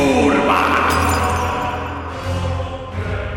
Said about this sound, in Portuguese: Ergue uma gema negra e no fim do cântico, arremessa no chão.